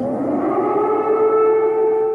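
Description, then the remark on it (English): A sustained air raid siren in Kiev, Ukraine, wails steadily, its tone holding with strong harmonics, loud and continuous across the whole stretch with no voices. “Air raid siren in Kiev, the capital of Ukraine.”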